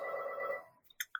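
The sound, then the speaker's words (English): A telephone rings with a sustained electronic tone that fades out, followed by two short, bright chirps. No one speaks over it. “Sorry about the phone.”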